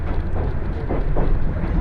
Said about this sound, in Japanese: 花輪線直通普通列車の大館行きです